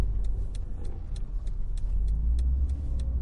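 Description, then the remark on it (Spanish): A car driven by a parent with their son in the back seat drives along with a steady, heavy low rumble of engine and road noise, while faint, brief clicks tick irregularly above it. No one speaks. “Alin conduce el coche.”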